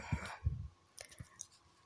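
A handful of soft, irregular keyboard clicks, a few keystrokes spread unevenly across a quiet moment with no one speaking.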